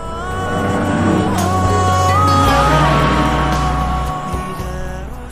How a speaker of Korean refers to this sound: 차 타고 도로 달리다 보면 옆에 지나가는 차에서 음악 소리 들리잖아요. 옆 차에서 어떤 애를 듣고 있는지 맞춰주시는 거예요. 자, 차 지나갑니다. 음악 소리 들릴 거예요. 옆 차에서 어떤 소리를 듣고 있을까요? 들어보세요. 차가 옵니다.